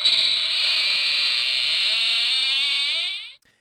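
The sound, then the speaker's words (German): A sci-fi door-opening sound effect: a bright, steady electronic hiss-tone with a faint warble, lasting about three seconds before cutting off sharply. No voices. “Das ich weiß nicht, Star Trek hatte ich jetzt noch nicht, aber hier haben wir eine Tür.”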